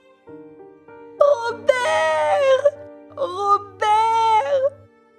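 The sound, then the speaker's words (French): A woman wails in anguish, two long, rising and falling cries, each lasting over a second, over a low steady hum. “À ce moment-là, un appel désespéré retentit.”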